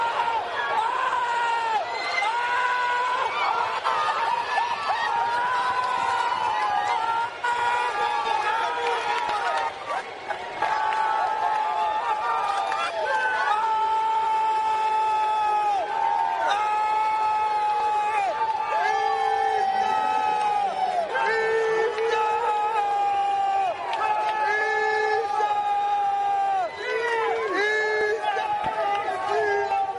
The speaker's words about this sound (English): Did someone yell in there?